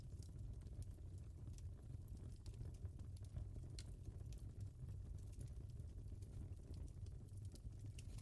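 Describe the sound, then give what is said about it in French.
A fireplace fire crackles steadily over a low, soft roar, with frequent sharp pops and snaps scattered irregularly throughout. Nobody speaks, and the sound stays fairly quiet. “Car l'ancêtre qui vit à l'intérieur de notre cerveau sait que le feu lui a beaucoup apporté.”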